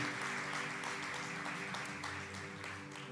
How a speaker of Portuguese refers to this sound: Diga glória a Deus e dê um aplauso bem forte para Jesus. Você pode aplaudir bem forte, igreja.